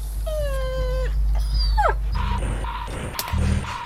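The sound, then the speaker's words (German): Dogs whimper and yip in high-pitched, drawn-out whines followed by short sharp yelps, fairly loud over a steady low rumble, with no one talking. “Die Hunde standen total auf unser Futter.”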